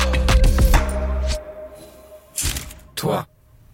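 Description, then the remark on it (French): A door, reached after entering a code, opening and closing: a low, rattling mechanical hum at first, then two short, solid thuds about half a second apart, with quiet background noise between. “Écoute, je passe le code et ensuite, il y a une porte.”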